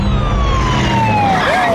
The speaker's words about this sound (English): I hate it when they put sirens in commercials.